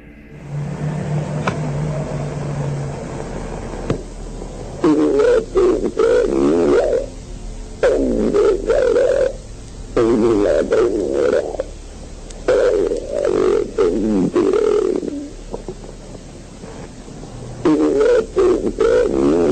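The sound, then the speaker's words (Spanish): A psychophony recording made by the Omega research group in basement niches holding fetuses, in Andalusia: a distorted, growling voice-like sound rises in a series of rough, drawn-out bursts over a steady background hiss, eerie and guttural, with brief pauses between each utterance. “Y en la zona de los sótanos encontraron unos nichos que acumulaban fetos y capturaron estos sonidos.”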